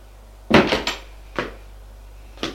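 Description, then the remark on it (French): A woman closes a door with a quick clattering thud, followed by two lighter knocks spaced apart, like the latch settling; no voices, just a faint steady hum underneath. “Elle ferme la porte.”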